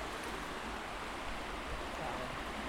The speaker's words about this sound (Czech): jako chtěli jsme tu řeku, no, ale tam no, vidíš, jako to, to je potok, víš.